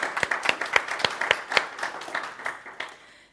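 Applause from an audience for a woman who dares to talk about opening up to other people, a dense patter of many hands with a few sharper claps standing out, steady for about three seconds before thinning out and fading.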